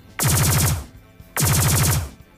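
Fighter planes' guns, coming into range, fire two loud, short bursts of rapid automatic gunfire, each a fast rattling stream of shots lasting about half a second, separated by a brief pause, with no voices.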